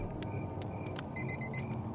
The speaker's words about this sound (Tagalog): Nag-alarm na naman. I wish I could snooze the day instead.